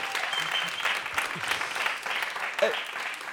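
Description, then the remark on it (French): An enthusiastic audience at a live recording at FGO Barbara, a music venue on rue Fleury in the Goutte d'Or, Paris 18th, claps in sustained, dense applause, steady throughout, with a few scattered louder claps standing out. “enregistrée pour la première fois en public à FGO Barbara à la Goutte d'Or Paris 18 devant un public euh, enthousiaste comme on peut l'entendre.”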